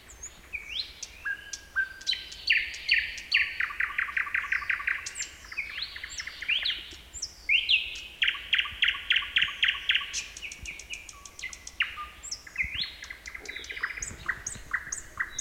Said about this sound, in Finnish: Nykyisin viitakerttunen on kovin yleinen lintu jo täällä Kaakkois-Suomessa ja levittäytynyt länsirannikolle saakka. Suomessa on ehkä noin 50 000 paria viitakerttusia.